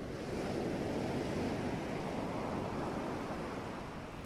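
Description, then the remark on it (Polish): Steady ocean surf washes continuously, a broad rushing hiss of waves breaking on shore, fairly loud and even, with no voices present. “W trakcie ćwiczenia usłyszysz szum fal, który będzie odmierzał 5-sekundowe wdechy i wydechy”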